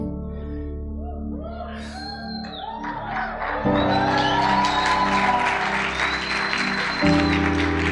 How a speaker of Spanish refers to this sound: A ver, ¿para qué aplauden si no saben ni qué?